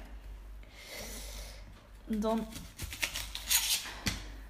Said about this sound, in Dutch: En je kan ook als laatste het kontje van de ui eraf snijden